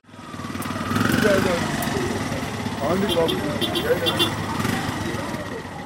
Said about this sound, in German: Hupend staut sich der Verkehr am Tafababavela Square im Stadtzentrum von Lagos.